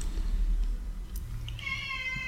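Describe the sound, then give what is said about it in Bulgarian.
A cat lets out a single drawn-out, complaining meow in protest near the end, over a low background rumble with no talking. “А, да, и тя а, протестира. Виж с повече котки.”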